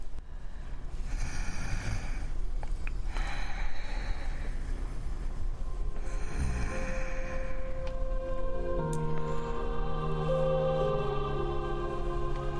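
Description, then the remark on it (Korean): A woman falling asleep snores lightly: breathy snoring rises and falls in slow, even cycles over a steady rumbling background, then gives way to sustained tones that swell and shift in pitch toward the end. “아내가 가볍게 코를 골며 잠이 들자 난 다시 눈을 감았다.”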